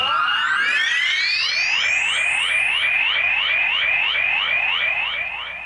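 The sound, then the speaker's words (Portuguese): A loud, shrill referee's whistle trills on its own, signalling the start of a Copa Rádio match at Itatibã stadium. It opens with upward-sliding tones and then warbles in a steady run of quick repeated chirps, with no one talking. “Agora sim, Trilo apito árbitro!”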